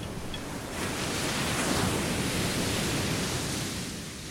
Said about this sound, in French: Le but est toujours le même, rester sur la plage, jusqu'à être saoulé par le vent, jusqu'à être piqué par le sable